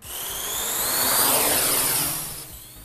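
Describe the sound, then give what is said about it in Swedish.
A whining, buzzing drone used to deliver a defibrillator to a person in cardiac arrest passes overhead, swelling louder toward the middle and then fading as it moves away, its high motor tones sliding downward. No one speaks. “Det går ut på att man skickar en hjärtstartare till den drabbade med hjälp av en drönare.”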